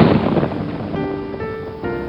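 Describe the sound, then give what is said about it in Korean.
Steady, dense rain of an unseasonal thunderstorm with lightning hisses loudly throughout, pouring down outside a window, with a low rumble of thunder at the start, while a soft sustained tone rises faintly beneath the downpour partway through. “창밖에 거세게 쏟아지는 폭풍우를 바라보며 맥키니 교수는 그날 저녁에 들었던 말씀을 묵상하기 시작합니다.”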